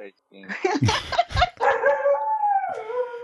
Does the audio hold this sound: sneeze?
no